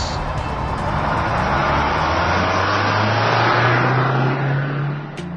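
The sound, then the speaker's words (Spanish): A car engine roars loudly and revs up, its low drone climbing steadily in pitch for about five seconds before easing off, with no voices present. “Ha llegado el momento de encender motores.”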